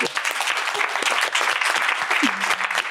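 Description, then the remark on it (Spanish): A crowd claps steadily for about three seconds, dense overlapping hand claps at a fairly loud, even level with no pause. “Un aplauso.”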